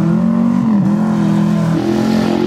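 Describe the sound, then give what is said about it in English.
Loud car engines rev and drone steadily during paddock bashing, their pitch dipping and climbing again over a few seconds, with no voices over the roar. “got the engines revving.”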